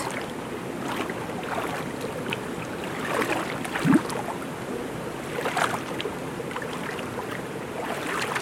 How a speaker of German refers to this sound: Es hat hier mehrere Becken und das Wasser fließt von Becken zu Becken, bis es dann am Schluss im Fluss landet.